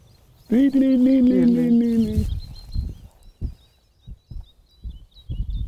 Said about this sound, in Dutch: boomleverik is dit. Hoor je hem zingen?